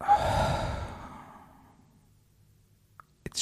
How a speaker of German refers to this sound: Ihr legt euch ganz entspannt hin und schließt die Augen, legt die Zungenspitze ganz entspannt an den oberen Gaumen hinter die Schneidezähne und atmet einmal komplett die Luft aus dem Mund aus.